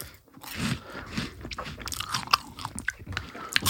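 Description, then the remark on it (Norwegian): Crunchy chewing of cheese puffs dunked in a so-called extreme sauce, with repeated crisp bites and grinding crunches in an irregular rhythm, loud, no talking. “ok, der fikk jeg halve, halve penny og cheese-doodlesen min. Uh, dynka i eh, denne såkalt ekstreme sausen, som Ja, jeg bare spiser det.”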